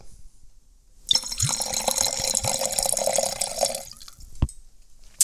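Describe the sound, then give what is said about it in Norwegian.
Schloss Sarstein 2020 Riesling GG white wine is poured into a glass in a steady splashing stream for about three seconds, with a rising liquid gurgle, then stops; a faint clink follows. “Heller i glasset.”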